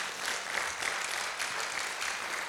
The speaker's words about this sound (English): Come on, can we give the Lord a good round of applause?